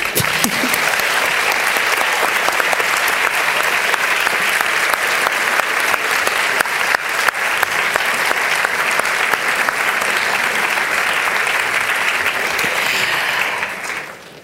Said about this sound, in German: Danke an euch, danke ans Publikum. Applaus bitte.